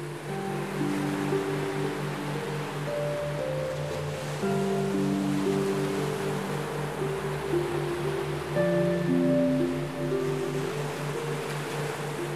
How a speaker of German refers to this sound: als du oben stehst, schaust du hinunter auf das wild tobende Meer.